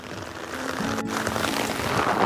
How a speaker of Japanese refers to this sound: これもう音が聞こえてると思うんですけれども、ものすごい雨が降っていて、結構久しぶりに大雨だなっていう感じですね。幸いそんなに風が強くないのが助かってますけれども、はい。